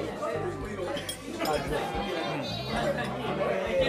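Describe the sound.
A busy izakaya in Shinbashi, where hairdressers are talking, keeps up a constant murmur of overlapping conversation, with dishes and glasses clinking now and then throughout.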